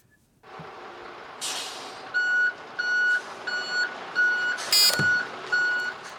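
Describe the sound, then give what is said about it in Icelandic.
A truck's reversing alarm beeps steadily, about six or seven evenly spaced tones over a rumbling engine, with a couple of sharp air-brake hisses; clear, no voices. “Ruslabill eða svona bakkljóð Já, hann kom það, bíl, þið voru saman með þetta þetta er bíl að bakka Akkurat, bakkljóð í bíl”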